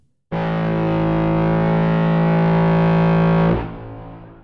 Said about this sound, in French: J'effectue ensuite un traitement EQ qui met plus en avant les bas médiums et atténue les aigus du son. Je finis d'atténuer les aigus et donne sa couleur finale avec un filtre low pass et un peu de drive.